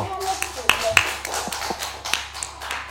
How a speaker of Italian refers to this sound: E con un grande applausometro la riprendiamo.